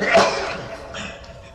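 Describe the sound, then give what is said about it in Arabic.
A single sharp sneeze bursts out near the start, loud, then fades into quieter background noise with a faint breathy tail. “رحمك الله”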